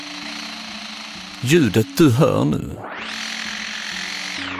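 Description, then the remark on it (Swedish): A lyrebird, an Australian bird, mimics a chainsaw: a steady buzzing drone, then a rising, revving whine that holds high and loud, with a man briefly speaking over the sound midway. “Även detta ljudet kommer från samma varelse. En lyrfågel.”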